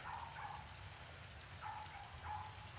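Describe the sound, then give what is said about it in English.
A small dog yaps in the background, three or four short, high barks spaced irregularly over a steady hiss of background noise; the dog has been barking incessantly for hours since early morning. No one speaks. “I want to pause just for a moment to reflect on the dog barking in the background. I can't help but correlate this little yapping dog”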